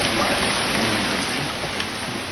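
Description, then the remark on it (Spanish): Steady rain falls under a heavily overcast sky in Santa Rosa de Lima, a dense, even hiss of drops pattering on surfaces, with no voices and no breaks across the whole stretch. “Está nubladísimo y sigue la lluvia en Santa Rosa de Lima.”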